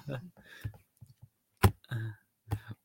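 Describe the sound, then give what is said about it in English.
A single sharp, loud sneeze bursts out in the middle of ongoing conversation, with voices talking before and after it. “Bless you.”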